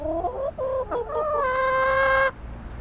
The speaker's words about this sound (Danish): er der også lidt høns, som går og kavler